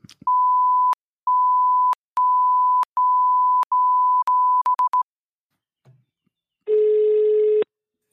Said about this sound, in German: Ja, dann sag mal die Nummer an, ich piepse dann weg.